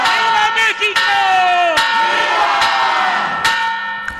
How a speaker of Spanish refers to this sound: Así se vivió el grito anoche, las voces que usted eh, escucha en respuesta al grito del presidente con los viva México y viva y viva y viva